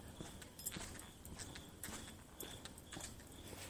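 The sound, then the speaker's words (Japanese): Footsteps in high-tech sneakers with soft, repeated squeaks, about one step every half second in a steady walking rhythm. Fairly quiet, over a faint background hiss, with no talking. “今のスニーカーがすごいキュッキュッキュッキュッいってるんですけどちょっとうるさいですねこれこのねこのスニーカー買った最初からなんかすごいキュッキュッキュッキュいうタイプのやつだったんですよね”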